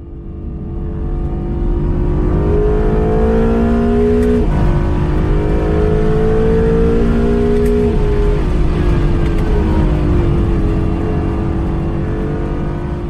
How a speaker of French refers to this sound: Cet autre son de moteur est justement celui de la Acura NSX de seconde génération, qui fait appel non pas à un moteur atmosphérique, mais bien à une motorisation hybride composée d'un moteur V6 biturbo de 3,5 litres et de trois moteurs électriques.